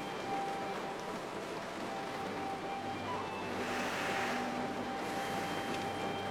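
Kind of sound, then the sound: nature, heavy rain pouring down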